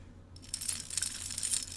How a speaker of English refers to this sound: Ooh. It's just keys, guys. Don't get scared. Yeah, not too spooky.